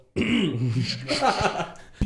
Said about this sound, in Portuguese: desculpa, deu um pigarro ah, aqui, vou dar mais outra.